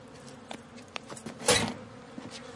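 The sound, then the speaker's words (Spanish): Soft, steady buzzing of bees from a swarm at the bottom of a mailbox in front of a house, flying beside a person's face as he shoos them away, with a few light clicks and rustles and one brief louder swish partway through; no one speaks. “Espanta a las abejas que vuelan junto a su cara.”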